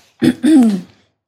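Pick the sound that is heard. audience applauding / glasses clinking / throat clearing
throat clearing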